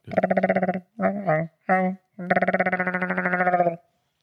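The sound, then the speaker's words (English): A voice imitates Chewbacca's warbling Wookiee growl, resonating through a glass, in four loud, bleat-like bursts: a long one, two shorter ones, then a final long growl. “But you know you can do a good Chewbacca if you have a glass.”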